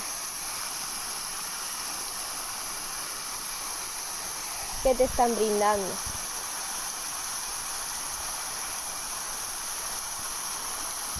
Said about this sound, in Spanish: ¿Qué puedes visualizar con el agua, parece una fuente, un lago quizá, incluso podría ser una cascada.